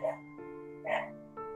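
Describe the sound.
A dog gives two sharp, loud barks about a second apart, over a steady humming background with what sounds like a voice underneath.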